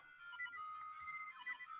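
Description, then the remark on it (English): A video game's low-health warning beeps repeatedly, with the player down to one heart: a bright, high-pitched electronic tone pulsing in a steady rhythm, heard on its own over faint game sounds with no talking. “at least we listen to that good beeping sound, huh?”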